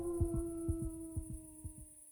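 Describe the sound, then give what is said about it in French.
A pack of wolves howl together in a long, steady, sustained tone while a low, muffled double thump of a heartbeat repeats underneath, four beats in a row, before everything suddenly cuts off. “Je n'entends plus que les battements de mon cœur et les loups.”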